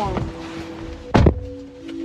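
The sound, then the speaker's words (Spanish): The door of self-driving car number 150 unlocks via a mobile phone and opens: a small click, then one loud, solid thunk of the latch, with a faint click afterward over a steady low electronic hum. “150, dice, ok, entonces voy a acercar al coche y dice que puedo abrir la puerta con el móvil, unlock.”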